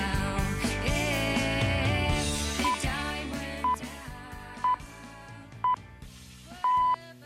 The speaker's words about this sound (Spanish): Qué raro suenan estas señales horarias de hoy.